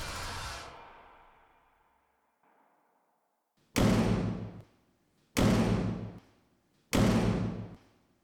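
A heavy door slams with a long, fading boom, then after a short quiet three more loud, echoing slams land at roughly even intervals, each ringing out before the next.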